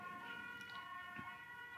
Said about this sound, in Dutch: Zo. De sirene, we zitten naast het ziekenhuis.